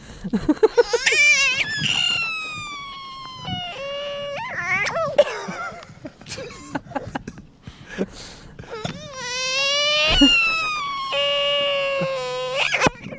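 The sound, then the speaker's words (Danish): A small child whines and cries in a run of high, drawn-out wails that rise and fall in pitch, broken by short sobbing gasps and catches of breath, steady and fairly loud throughout. “Oh, det, det er jo lyden af et barn på den der... Det er lige helt små børn, ikke?”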